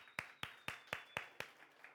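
A church audience applauding a couple who are pastors in Puerto Rico, with steady, rhythmic clapping in unison: six sharp, evenly spaced claps in quick succession, then a softer one as it trails off, with no talking.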